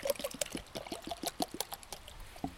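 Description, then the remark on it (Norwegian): Cola poured into a glass, a bubbly gurgle threaded with quick irregular fizzing crackles and pops that hold steady for a few seconds, fairly faint, with no voices. “Det drikkes cola her.”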